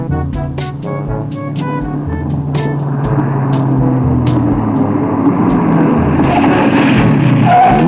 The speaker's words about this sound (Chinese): 司马懿于是就骑着他的摩托车到前面去看了一下。